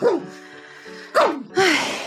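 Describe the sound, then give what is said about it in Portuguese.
A dog named Simba barks three times, sharp yappy barks with a short gap before the last two, which come in quick succession; no one is talking. “O cachorro tá fazendo merda.”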